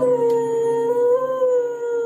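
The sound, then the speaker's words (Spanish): A female dog that plays the piano and sings howls in one long, steady, sustained note that fills the whole moment, loud, with a slight waver in pitch and no voices. “A ver, espérame, tú, este, escuchemos a la perrita.”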